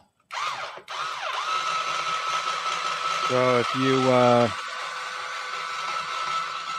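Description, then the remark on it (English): A blender whirs steadily and loudly from start to finish, a continuous motor whine, while a man talks over it, his voice briefly rising near the middle. “I'm talking over a blender.”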